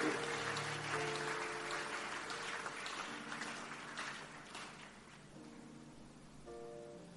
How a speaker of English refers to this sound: Oh, come on, clap your hands and let's celebrate.